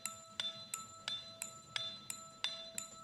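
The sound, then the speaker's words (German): Bright glockenspiel notes in a music arrangement, playing an offbeat part, struck in a steady, evenly spaced rhythm, about nine clear metallic pings with ringing overtones, sounding alone over a faint low background. “Dann haben wir den hier noch. Dieses Glockenspiel.”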